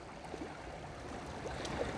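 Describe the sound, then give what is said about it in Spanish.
Sea water washes steadily, a dense continuous rush of waves lapping at a shore, swelling slightly toward the end. No voices are heard. “Mientras tanto, el ir y venir de las olas hace que la cercanía sea lo que necesito.”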